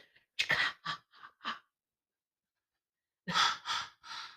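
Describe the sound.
A quiet voice whispers a breathy imitation of the slasher-movie cue heard when Jason is coming: a quick run of short hissed syllables, a long pause, then three more harsh breathy bursts.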